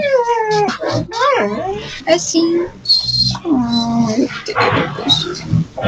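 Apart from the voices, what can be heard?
dog vocalizing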